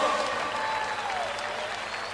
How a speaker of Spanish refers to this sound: Un aplauso grande